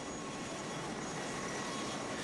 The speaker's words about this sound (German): Auf dem Flugfeld landen jetzt pausenlos Hubschrauber und Flugzeuge mit Hilfsgütern. Mit Trinkwasser, Nahrung, Medikamenten und mit Spezialisten aus dem Ausland.